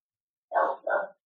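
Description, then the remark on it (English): Two quick barks from a dog, back to back, clear, then silence; no talking underneath. “They bark like once maybe, and then they then they stop.”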